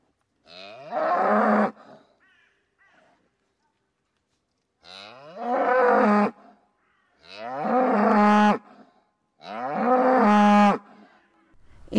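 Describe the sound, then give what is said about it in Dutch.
Black-and-white Friesian cows in Friesland, the Netherlands, moo four times in a row, each call long and loud, with brief pauses between them and no one speaking. “Friesland wonen niet alleen maar mensen, maar ook koeien.”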